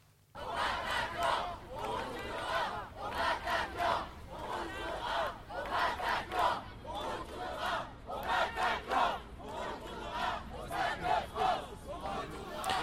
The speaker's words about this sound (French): Dans l'après-midi, des milliers de personnes se sont réunies autour des lieux des attentats, dans les cafés ou sur Place de la République. Écoutez.